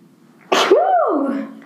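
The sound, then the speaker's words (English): A single loud sneeze: a sudden sharp burst of breath followed by a drawn-out voiced tail that rises and falls before fading, with no talking. “Actually, hold on, I gotta sneeze.”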